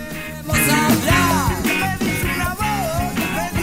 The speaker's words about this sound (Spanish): Esa percusión casi toc toc. ese es el cencerro que me encanta, me encanta, me encanta.